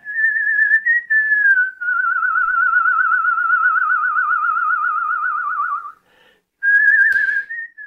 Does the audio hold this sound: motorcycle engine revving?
no